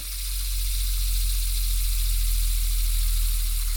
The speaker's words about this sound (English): I think this is the same fidget spinner design too. Without your voice, I want to hear like I want I want to hear like twenty oh. good seconds of the fidget spinner.